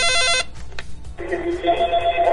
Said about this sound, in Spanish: Bueno, pues vamos a esperar a que suene nuevamente el teléfono a ver si tienen la respuesta a la pregunta.